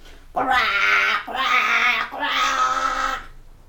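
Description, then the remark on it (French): A voice imitates a young crow's cawing with three loud, drawn-out, raspy calls in quick succession, clear, with no other sounds around them. “Et en rentrant chez lui, il s'entraîna encore à croasser.”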